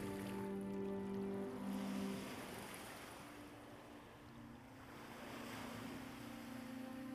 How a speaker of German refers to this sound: Jetzt, wo die erste Welle deine Füße umspült, spürst du ein Gefühl von Freiheit.